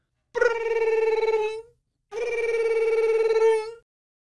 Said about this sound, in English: But they were both shouted down by the phone, which rang loudly.